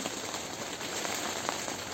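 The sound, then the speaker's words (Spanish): Steady rain falls in a dense, continuous hiss with scattered brighter drop impacts, heard at moderate level with no voices. “queremos escuchar la lluvia caer.”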